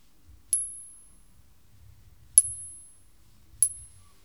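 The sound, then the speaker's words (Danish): An original 20-krone coin is struck three times, each tap giving off a bright, high metallic ring that hangs for a moment and fades, with dull low knocks beneath. Fairly quiet, no talking. “man kan lige sådan prøve en anden metode, hvor man lige slår dem an”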